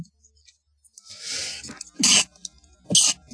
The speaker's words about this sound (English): Oh, excuse me. Had to sneeze.